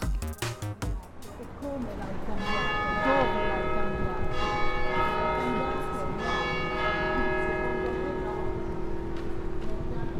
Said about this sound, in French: Nous sommes sur la place Saint-François. Nous venons d'entendre les cloches euh, de l'église sonner la place Saint-François, donc une place euh, du centre-ville de Lausanne qui est bien connue de tous les Lausannois.